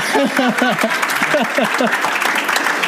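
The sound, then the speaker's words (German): A steady burst of audience applause, dense and fairly loud, running the whole way through, with voices talking or laughing over the clapping. “Weißt du, da kriegt man Applaus, wenn man mal einen Punkt setzt.”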